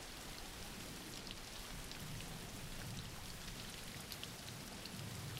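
Steady rain falls without a break, a dense hiss of drops pattering on surfaces with a soft low rumble beneath. No voices, just the continuous even wash of rainfall.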